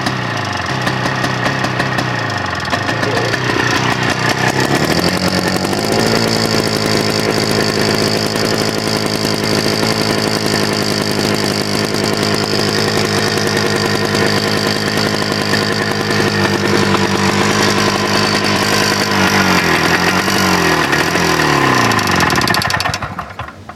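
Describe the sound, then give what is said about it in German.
A small air-cooled engine with blower cooling runs steadily and loudly with a buzzing, rattling drone, its pitch dipping and rising a couple of times before it cuts out abruptly when a wire from the ignition is held to a piece of metal to short it out. No one speaks. “Äh, damit, äh, äh, das kommt von der Zündanlage und damit wird die dann kurz geschlossen, dann geht der Motor aus.”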